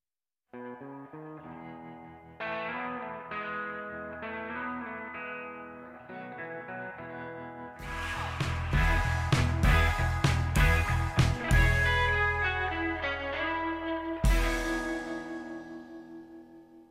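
A pop song plays on its own: a soft melodic opening that swells around the middle into a fuller, driving band arrangement with heavy drums and bright, layered instruments, loud and close throughout.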